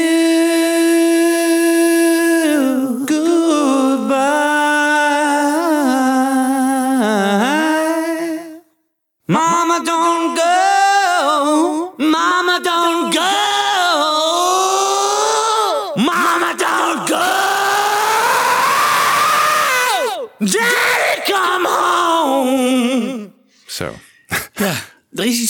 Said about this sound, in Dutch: want je hoort de galm wel tijdens zijn zingen, maar aan het eind wordt hij gelijk afgekapt. Hè? Dus ehm, hij laat hem niet doorklinken, de galm. Dat verbaast mij eh, eh, hierbij.